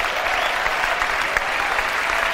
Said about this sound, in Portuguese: Você percebeu aí como ele foi aplaudido com entusiasmo quando ele fala do 3G?